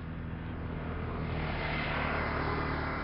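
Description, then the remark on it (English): A rescue truck drives past in Bondi on its way to rescue somebody, its engine a steady, rumbling drone that swells slightly as it passes. No one speaks. “And in Bondi today, that was the Bondi rescue truck zooping past to rescue somebody.”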